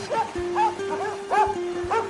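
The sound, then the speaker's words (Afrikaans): A dog barks four times at a distance, short sharp yaps spaced unevenly, with a steady low hum running underneath. “In die verte kon ek 'n hond hoor blaf.”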